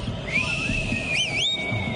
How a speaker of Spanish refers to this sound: hasta, el técnico, dirigiendo silba en muchas ocasiones.